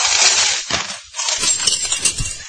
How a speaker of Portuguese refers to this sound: Vamos lá, vai botar todas as moedas nessa, nessa música. No 3, no 3, todo mundo coloca todas as moedas juntos.